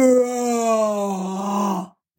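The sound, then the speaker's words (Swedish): A voice imitates the cow-like mooing made during childbirth, one long, low groaning call, held steady for nearly two seconds with a slight downward slide before cutting off. “Jag var liksom, jag lät som ett djur, råmade som en kossa.”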